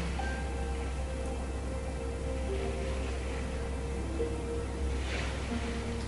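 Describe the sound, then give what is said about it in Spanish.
Soft ocean waves wash in and out in gentle, hushed swells beneath a calm, sustained musical drone, with a steady low hum underneath and no voices. “mientras escuchas el vaivén de las olas, te haces consciente del vaivén de tu respiración.”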